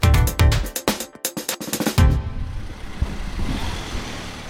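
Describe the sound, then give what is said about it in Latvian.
Outdoor ambience at the Balvi bus station in Latvia on a Friday afternoon at 3:15, with idling vehicle engines, opening with a rapid series of sharp rhythmic clicks or clatters before settling into a steady low rumble of motors and traffic. “Balvu autoosta piekdienas pēcpusdiena pulkstenis rāda 15 minūtes pāri trījiem.”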